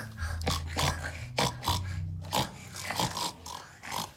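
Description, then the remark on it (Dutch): A person imitates a pig, making a string of low, rough grunts and snorts in quick, uneven succession, fairly loud, with no speech. “Bij de varkens van een hele strenge boer. Hoe doen varkens?”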